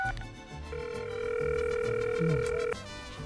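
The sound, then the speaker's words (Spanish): A short beep, then a steady telephone dial tone hums for about two seconds and cuts off abruptly as someone places a phone call, heard over low background noise with no one talking. “Ah, se me olvidaba, tengo que hacer una llamada.”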